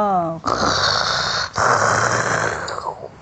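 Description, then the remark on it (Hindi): In a told story, a voice lets out a loud, rough, growling imitation of a lion's roar for a dragonfly pretending to be a lion to frighten the animals, sustained for about three seconds with a brief break in the middle, forceful. “ज़ोर से उसने आवाज़ निकाली सारे जानवर जानवर फिर से दुबक गए”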